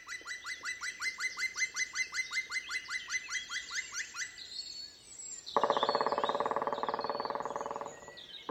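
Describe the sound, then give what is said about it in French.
A black woodpecker in a forest gives a long, rhythmic series of loud ringing calls to mark its territory, about twenty evenly spaced notes, followed by a dense, rapid burst of powerful drumming that lasts a few seconds. “Bavard, le pic noir entame ensuite un chant pour marquer son territoire.”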